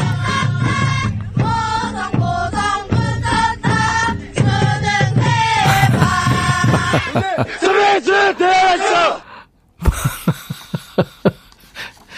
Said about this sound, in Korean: 남자 고등학교 애들은 소리를 지르면 도통 알아먹을 수가 없어요. 술술 달술 이렇게 했죠. 술 먹은 건 아닌 것 같고 원래 이래요 얘들이 그때는 아 이게 그러니까 시험 잘 보라고 후배들이 응원하는 소리였잖아요 그렇죠 붙었다 붙었다 보성 보성 붙었다 수능 대박